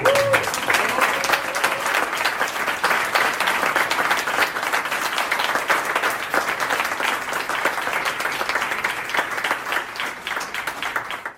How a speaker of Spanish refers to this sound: Quisiera pedir, Gastón no ha podido venir, pero quisiera pedir, lo vamos a grabar, un aplauso para Gastón Antonio.